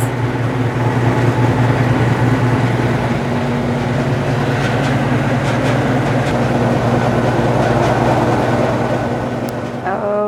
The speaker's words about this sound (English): I'm going to get right in your face to get some Suri. Just opening a little bit of it up. Uh, and then it'll blend out in the picker for me.